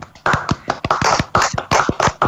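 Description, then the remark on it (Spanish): A burst of group applause: many hands clapping together in a dense, steady patter, with a few sharper claps standing out, fairly loud and without voices over it. “¿Se va a escuchar un aplauso de todos nosotros?”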